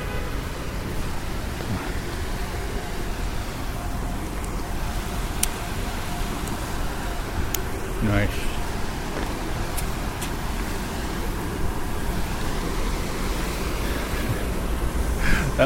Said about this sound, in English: Brutalist waterfall.